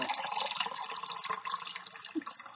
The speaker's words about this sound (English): I don't hear that natural reverb off of the porcelain. oh, it wasn't off the porcelain. It was just hearing my piss bottle.